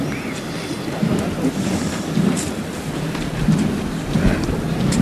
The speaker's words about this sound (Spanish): Los tambores que se escuchan son los de la Virgen. De la Virgen. Las angustias.